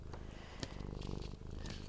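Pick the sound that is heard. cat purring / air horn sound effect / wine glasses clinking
cat purring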